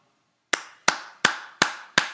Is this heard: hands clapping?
yes